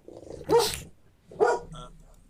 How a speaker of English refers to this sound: uh, actually, that was uh, that was Sal's dog. He was coming in live from uh, uh, Pennsylvania, and he wants to say "roof, roof, roof, roof."